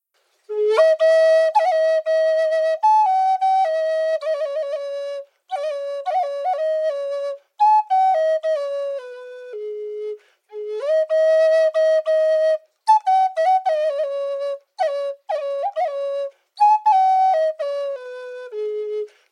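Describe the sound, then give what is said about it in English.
A solo flute plays an improvised, slow, wandering melody in breathy phrases, each held tone separated by short pauses for breath. It sounds steady, with no voices. “And what I'm going to do is improvise a song, and I think within it you might be able to hear the wind, the sound of the birds, and think of the heart of the tree and our own breath that is shared when we play a flute.”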